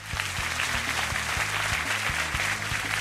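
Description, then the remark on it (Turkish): Dense, steady applause at the close of the Gedik Show on a Turkish university radio station, for listeners at home; a continuous crackle of many hands clapping at even loudness with a low rhythmic thump pulsing underneath. “kendinizi buradan kendinizi evinizde şu an alkışlayın.”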